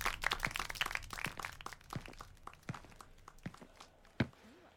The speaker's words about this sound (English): Let's all clap